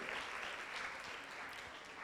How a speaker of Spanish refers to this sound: Un aplauso acá para los hermanos de Brasil. Muy bien, muy bien.